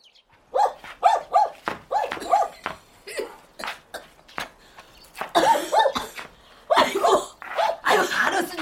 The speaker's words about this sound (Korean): 어지간히 뛰고 짖거라 그냥 빗속에 콕콕 쑤시고 사방에 어찔거려서 정신 사나워 죽겠다